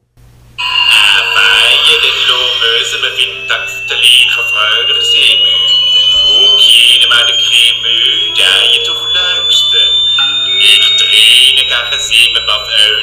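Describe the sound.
A loud, harsh noise-rock track by a band plays continuously, with a shrill whistling tone slowly rising over a steady low drone and dense, distorted layers of sound.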